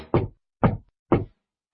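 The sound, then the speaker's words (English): Three solid knocks on a front door, evenly spaced about half a second apart, fairly loud, each with a short resonant thud and no voices around them. “Knock, knock, knock. Who's that knocking at our little front door?”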